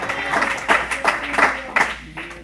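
A church audience applauds the Lord, clapping in steady rhythmic bursts of roughly three per second over a murmur of voices and a sustained tonal hum that fades toward the end.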